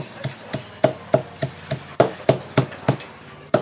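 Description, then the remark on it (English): Steady, rhythmic chopping: a blade strikes a board about a dozen times at an even pace, each hit a sharp, moderately loud thud with no voices over it, as a man chops animal feed roughly fine to mix with rice for his chickens and ducks. “now he's chopping it roughly fine let's say and then he's gonna mix it with the rice”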